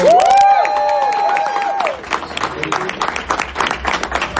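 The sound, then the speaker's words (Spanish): An audience at a live edition of Cultura Secuencial at the Microsoft Store breaks into applause, a sustained high whistle ringing over the first couple of seconds before steady, dense clapping fills the rest, loud and continuous with scattered cheers. “Fuerte aplauso.”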